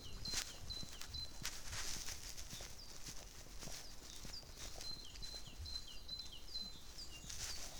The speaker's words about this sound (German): Oder ein Vogel